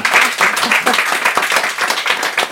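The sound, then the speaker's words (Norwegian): An audience applauds steadily as panel guests, including Ruth Grung of the Labour Party and Toril Eidsheim, are welcomed up; many hands clapping in a dense, continuous patter that stays fairly loud throughout, with faint voices mixed underneath. “Men dere må jo klappe for disse her også.”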